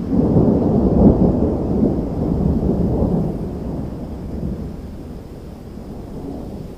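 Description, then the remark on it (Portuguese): A night thunderstorm in the New Mexico desert in July 1947, with deep, sustained rumbling thunder rolling through, loudest early on and slowly fading, over a steady wash of rain. No voices. “E aí começa, em 1947, uma tempestade à noite.”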